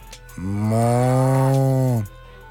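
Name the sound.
cow mooing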